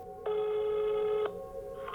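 A steady electronic telephone ringback tone on an outgoing call from Danmarks Radio's P Dokumentar sounds for about a second, then cuts off, with a quieter tone lingering after it. It is clear, and no one speaks.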